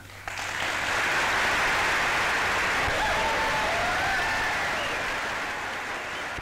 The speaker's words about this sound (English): I don't know what it is, but like that, like the like sound of applause that like you hear when you hear like listen to old timey like radios. Yeah, I don't know why, but it just it hits you so much harder. Get you pumped.